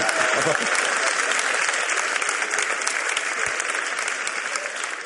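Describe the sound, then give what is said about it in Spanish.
Steady audience applause fills the whole stretch, a dense, even wash of many hands clapping at a loud, unchanging level that fades only slightly toward the end. “Aplaudido, arranca el aplauso un nutricionista, ¿sabes?”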